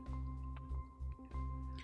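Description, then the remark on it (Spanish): Wet gulping and swallowing sounds of someone drinking water, a few quick squishy liquid pulses in a row, with a steady low hum underneath and no talking. “Ay, perdón, me agarraron aquí tomando agua.”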